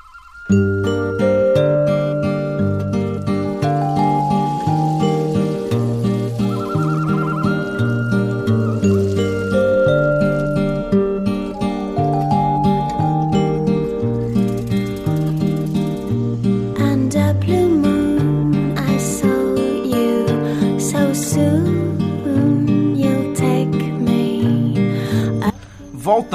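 A rock song, one of the songs that opens the film Donnie Darko, plays steadily throughout, with layered harmonic instruments, a repeating low bass pattern and bright chiming tones on top, sustained at a consistent loud level with no talking.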